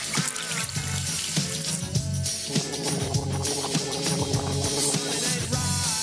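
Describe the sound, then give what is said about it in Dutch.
A faucet runs steadily for several seconds, a continuous rush of water as a glass is filled, with a rhythmic musical backdrop underneath and no talking. “Nou, ik zie dat hij in ieder geval even een glaasje water neemt.”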